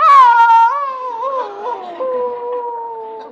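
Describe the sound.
A single drawn-out dog howl, loud, wavering slightly in pitch as it slowly slides downward and fades over a few seconds, with no talking.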